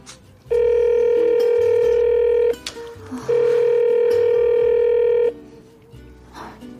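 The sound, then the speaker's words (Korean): A phone ringback tone sounds twice, each steady electronic burst lasting about two seconds with a short pause between, loud, and the call goes unanswered; the call is placed from the N Tower plaza on Namsan to a man who glances at his phone and does not answer. “그래서 다시 전화를 했죠.”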